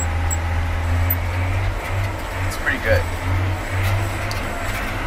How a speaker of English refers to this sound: Nothing feels better than being out here on the tractor